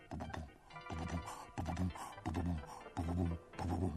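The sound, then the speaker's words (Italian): A lion's heartbeat thumps steadily, about five or six deep, muffled double beats in a regular rhythm, loud, with a soft tonal background underneath. “Se fate attenzione, sentirete il cuore del leone palpitare.”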